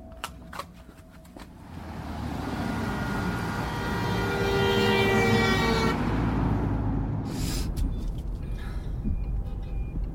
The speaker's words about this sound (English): All this traffic. Where are they all going? Oh, I wouldn't. You can't U turn there. What's going on? Have you all got lost at the same time or what?